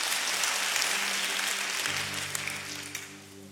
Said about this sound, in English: Amen. Amen. Hey, let's give the Lord a hand clap and stand with me, please.